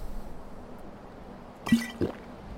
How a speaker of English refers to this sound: So I suspect I'm probably pretty thirsty right now. I'm going to drink some, have an ale, and uh, since I need a little fortification before I go meet these uh, rather formidable men, drink some water.